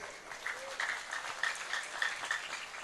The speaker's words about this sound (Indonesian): tepuk tangan untuk Bu Kades